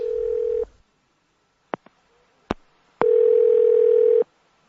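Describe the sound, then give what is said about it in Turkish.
A steady, buzzing telephone ringback tone sounds in two bursts, a short one then a longer one, with a few sharp clicks on the line during the silent gap; no one speaks. “Serap Aksu'nun telefonu çalıyor işte”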